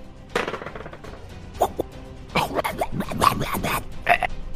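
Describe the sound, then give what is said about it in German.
A series of gurgling burps comes in irregular bursts, a short one first, then a longer rough run of belching sounds, with no talking. “Äh, äh, äh, rülpst nicht so komisch an mir vorbei, das ist ja eklig.”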